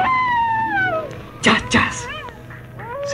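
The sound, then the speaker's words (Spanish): A voice mimics a coyote howl with a long, falling wavering cry, then two short breathy bursts and a few rising yips, fairly loud. “convirtió en coyota y empezó a aullar.”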